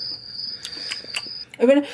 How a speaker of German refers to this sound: Das lange Schweigen im Wald, Leute. Da kannst du jetzt so einen Grillenzirpen einspielen.